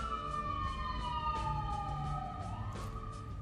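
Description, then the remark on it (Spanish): A police car siren wails steadily, its pitch sliding slowly downward then rising again as the vehicle passes, loud over a dense low rumble of traffic. “Ahora dejemos que pase esa patrulla porque la verdad es que...”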